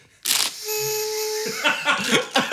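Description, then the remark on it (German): A brief rustling burst, then a small party horn, brought along to celebrate carnival, blares one steady, buzzy, mid-pitched note for about a second before laughter and chatter break out. “Ich habe auch was mitgebracht zum Zelebrieren. Na? Eine kleine Tröte.”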